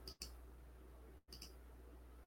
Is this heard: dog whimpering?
no